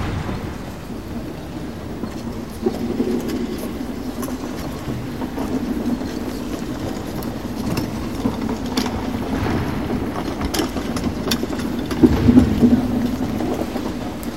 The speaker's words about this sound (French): le chariot d'une bibliothécaire. Oui, c'était le chariot d'une bibliothécaire que vous avez entendu. Il est apparu d'un coup, il m'a transporté, il m'a fait vagabonder.